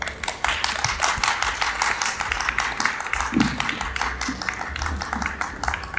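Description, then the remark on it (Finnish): A crowd applauds a performer steadily after a spoken performance, many hands clapping in a dense, continuous patter at moderate loudness, with no voices standing out. “kiitos hänelle ja vielä aplodi hänelle.”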